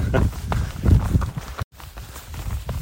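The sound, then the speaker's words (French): Steady, heavy thuds of a runner's footsteps outdoors as the runner passes horses, with low rumbling impacts and a brief cut-out partway through; no one talks. “je croise les chevaux.”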